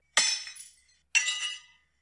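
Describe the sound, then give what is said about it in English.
Glass being thrown during a fight at a buffet in Queens: two loud crashes of glass shattering, about a second apart, each a sharp burst followed by a brief bright, tinkling scatter of shards that fades out. No voices are heard. “They throwing glass around.”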